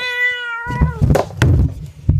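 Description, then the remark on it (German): A cat gives one drawn-out, tonal meow, quickly followed by a series of clattering thumps and bumps as a microphone is knocked over. “Boah, Katze.”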